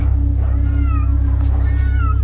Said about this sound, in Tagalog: Rinig na rinig ang kanilang pag-atungal. Tila ba'y gigil na gigil ng sagpangin ang sariwang bangkay ng karne ng tao. ang atungal lang mga pusa ay talagang hindi nagpapapigil.